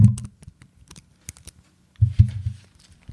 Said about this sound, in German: Was machst du da? Okay, ich habe ein bisschen mit Papier rumgemacht. Ja, okay, nee, das kam überhaupt nicht an.